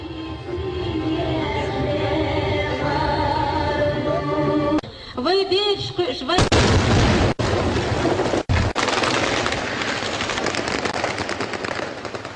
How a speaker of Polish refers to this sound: Pod fotelem Ahmada Kaderowa wybuchła bomba, najprawdopodobniej wmurowana tam podczas generalnego remontu areny. Wśród 30 zabitych był też prezydent Ahmad Kaderow.